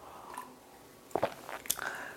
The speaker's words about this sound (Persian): یه آب بخورم اینجا رو ادامهش رو باز توضیح بدم